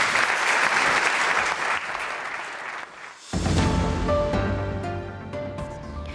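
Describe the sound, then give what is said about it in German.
An audience claps in a dense, steady wash of applause for about three seconds, then it fades out as music with sustained tonal notes and a low bass line takes over. “Applaus”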